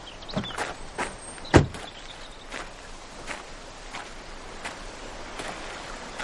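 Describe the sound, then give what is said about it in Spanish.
A car stopped at the door of a luxurious seaside mansion: its door clicks open as the driver gets out, then shuts with one solid thud, followed by a steady series of soft footsteps walking away over a faint background hum. “Sale del coche.”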